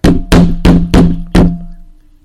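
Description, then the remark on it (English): Five firm knocks on a wooden surface, four in quick even succession and a fifth after a brief pause, each with a hollow resonant ring that fades out at the end. “I'm sure they weren't trying to tap out a song or anything”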